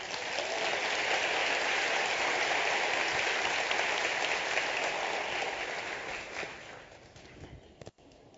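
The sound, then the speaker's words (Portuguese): A large church audience applauds a family with dense, steady clapping that holds at full strength for several seconds, then thins out and fades, ending with a few scattered final claps. “Vocês podem aplaudir essa família tão bonita?”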